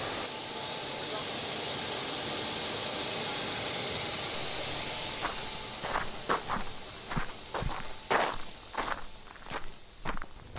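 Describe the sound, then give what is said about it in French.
A pneumatic grape press lets out a loud, steady rush of hissing air for several seconds as it exhausts air during the grape harvest, then it eases off and scattered footsteps and sharp knocks take over. “le bruit qu'on entend, c'est l'échappement de mer.”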